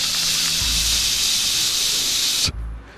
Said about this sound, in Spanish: El ruido blanco incluye ruido ese que se oía cuando tenías un televisor análogo y ponías un canal de televisión que no estaba transmitiendo y sonaba